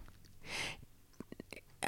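A single quiet burp with a breathy, rasping release, followed by a few soft mouth clicks and smacks. No one talks.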